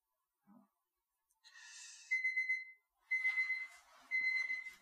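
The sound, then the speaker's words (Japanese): An electronic kitchen timer goes off while coffee is being made, with a high, steady tonal beep, sounding in repeated bursts with a rhythmic pulse after a brief hissing whoosh, with no one talking. “今コーヒー入れてました。はい。それでタイマーが”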